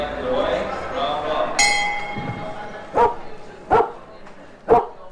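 A dog barks three times in short, sharp bursts about a second apart, preceded by a bright metallic clink that rings briefly. A low murmur sits underneath throughout.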